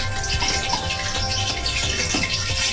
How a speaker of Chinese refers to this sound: 然后大家听到这个嘣嘣嘣嘣嘣的声音，这个时候其实是这个水蒸气，水和油接触之后变成了水蒸气，它在蒸发，是吧？好，等这个滋啦的声音没有之后。现在还有啊，再等会儿。